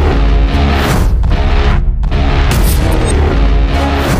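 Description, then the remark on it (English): Loud, dense orchestral action-trailer music, the synth version of an action trailer piece called Takedown played on virtual instruments, with heavy low-end hits and sustained brassy chords, briefly dropping out twice before surging back at full intensity. No one speaks. “So, this is the synth version.”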